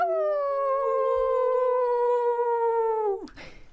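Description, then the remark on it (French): A person imitates a sled-dog pack howl: one long, loud, wavering note that slowly sinks in pitch for about three seconds, then drops off sharply into a breathy exhale. “Donc on euh, imite le cri de meute en fait.”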